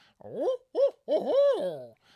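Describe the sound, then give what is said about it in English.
A person's voice imitates a barred owl's hooting call, made while turkey hunting on a spring morning: two quick rising-and-falling hoots, then a longer drawn-out hoot that swoops up and trails off, with no other sounds. “uh, you know, an owl, barred owl hit a hit a call, and then you'll hear old gobbler in the background.”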